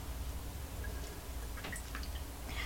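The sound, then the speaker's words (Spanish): On 13 July 2023, someone takes a quiet sip of freshly brewed coffee with no sugar, a few soft, wet slurping clicks over a low steady hum, with no talking. “Así que voy a darme este sorbito de café un 13 de julio de 2023 para comentarles entonces los temas principales de la jornada.”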